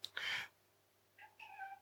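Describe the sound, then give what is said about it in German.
A cat meows: a sharp, loud first cry, then after a short pause two softer, drawn-out meows with a falling pitch. No one speaks. “Ähm, es gibt tatsächlich, also eine verrückte Katze hier.”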